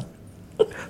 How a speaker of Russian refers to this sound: Будь здоров.